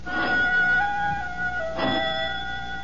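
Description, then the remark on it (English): A doorbell chimes twice, two struck tones about a second and a half apart, each ringing on and slowly fading. The sound is clear, with no voices. “Only the doorbell.”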